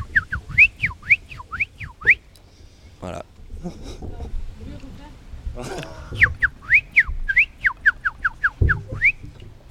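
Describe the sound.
A person whistles a bright, rapid birdsong imitation: two bursts of repeated rising-falling chirps, separated by a short stretch where voices talk and laugh.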